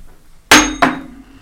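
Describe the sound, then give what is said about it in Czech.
A one-dollar coin spun on a tabletop for a coin toss: two sharp metallic clinks about a third of a second apart, each leaving a bright ringing tone that fades slowly, with no voices. “ty máš těsně vedle sebe jednu dolarovku, my tam nemáme panu, ale máme tam svobodu, ale to platí.”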